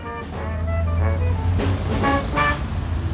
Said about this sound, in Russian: А в это время ехала по дороге военная машина